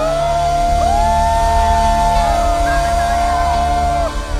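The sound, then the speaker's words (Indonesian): An audience cheers loudly and continuously, clapping hands above their heads, with rising whoops and shouts sustained over a dense crowd roar that fills the whole stretch before easing slightly at the end. “Engkau yang percaya boleh tepuk tangan di atas kepala.”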